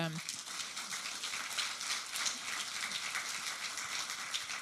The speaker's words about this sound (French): Merci beaucoup à tous les deux déjà. On peut les applaudir parce que.